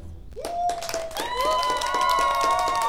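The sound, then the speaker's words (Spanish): An audience breaks into steady applause for a participant who has just dropped a prejudice into a 'prejudice-meter', dense clapping that swells quickly and holds loud, with a bright sustained rising tone ringing over it. No one speaks. “¿Lo vamos a aplaudir?”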